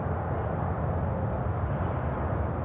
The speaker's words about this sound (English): All I can hear are a few birds set against the calm white noise of the distant freeway.